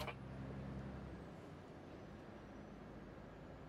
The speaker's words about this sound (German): So, jetzt fließender Verkehr. Das Auto vorne fährt. LKW rast von hinten drauf.